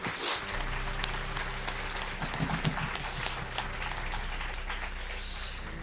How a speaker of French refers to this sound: Oui, on peut les applaudir.